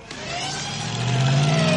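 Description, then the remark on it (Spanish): A DeLorean car's engine revs steadily as it pulls away along an ice-covered street, a sustained mid-pitched drone that climbs gradually in pitch and grows a little louder, with no voices. “El coche avanza por la calle cubierto de hielo.”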